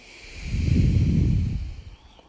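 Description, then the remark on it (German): A single deep, airy breath swells up and slowly fades over about a second, with no talking around it. “Also normalerweise musste ich immer so tief ein, ne? Und tief ausatmen”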